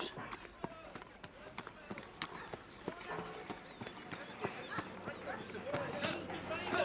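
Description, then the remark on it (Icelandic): Horse hooves clip-clop in a steady, somewhat irregular run of sharp knocks over a murmur of voices and background noise; riders arrive on horseback at a tavern near Akureyri, Iceland, in 1834. “Bindum hestana hér við gerðingastöðum.”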